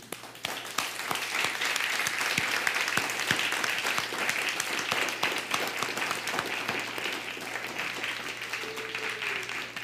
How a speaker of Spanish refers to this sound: Ahora sí, un fuerte aplauso.